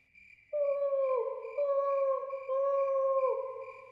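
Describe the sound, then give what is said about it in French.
An owl hoots at night in a garden in long, drawn-out calls, several in a row, each sliding slightly lower at the end. It sounds fairly loud, with no voices present. “faisait le hibou”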